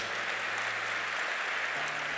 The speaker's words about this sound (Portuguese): Dá um aplauso lindo para ele, se é verdade.